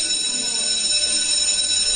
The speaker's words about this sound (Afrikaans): Lientjie ruk sy skrik toe die skoolklok skielik lui.